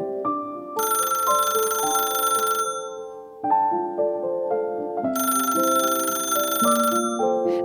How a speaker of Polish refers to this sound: Ledwie dotarł do swojego mieszkania, kiedy zadzwonił telefon, a on szybko podniósł słuchawkę